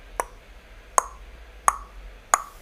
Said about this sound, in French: Quand un robinet goutte, un robinet, on trouve le robinet dans la salle de bain, sur le lavabo, on ouvre le robinet et l'eau sort du robinet, ok Quand un robinet goutte,